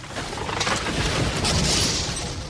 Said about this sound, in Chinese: 沉重的石门果然打开了。